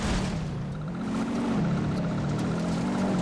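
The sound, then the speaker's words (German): A steady car engine drone in a video game, with a low hum and faint whirring overtones, holds at a constant level. No one speaks. “Also, ich hänge wieder am Auto, am Auto mit meiner Zunge dran.”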